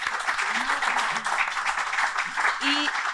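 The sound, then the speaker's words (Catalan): A steady wash of audience applause, dense and sustained for a few seconds, with occasional faint voices or cheers rising briefly above the clapping. “M'agradaria demanar un aplaudiment, per favor.”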